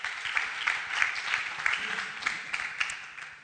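A crowd claps steadily for a few seconds, a dense patter of many hands with a few sharper individual claps standing out, moderately loud, with no voices over it.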